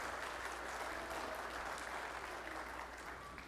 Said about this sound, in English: Let's give a, a great big round of applause for our, our fifth grade who are leading us in prayer today.